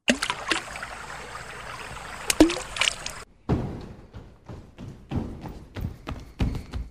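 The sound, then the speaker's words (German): Water sloshes and splashes, like paddling in a boat, with broad watery hiss at first and then a series of irregular splashy strokes and knocks. “Das Wasserplätschern und das Rennen sind nur ein Teil der Nebengeräusche, die in unserem Beitrag versteckt sind.”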